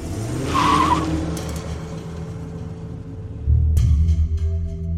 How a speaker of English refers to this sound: In silence, I climbed into my car, turned the key, and left Pendulum House for good.